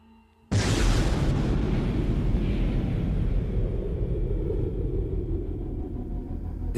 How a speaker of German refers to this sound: Sonntag, 11. Juni 1961. In ganz Südtirol laufen letzte Vorbereitungen für den großen Schlag. Innerhalb weniger Stunden explodieren 37 Strommasten. Die Feuernacht, der vorläufige Höhepunkt einer Anschlagsserie.